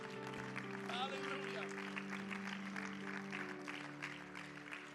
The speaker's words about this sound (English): Oh, why don't we clap our hands to the Lord one more time?